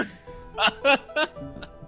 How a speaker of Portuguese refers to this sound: Peraí, que tô passando mal aqui. A tosse voltou aqui, só um segundo.